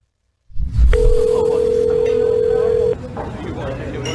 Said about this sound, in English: Is it an older gentleman calling his son on his phone.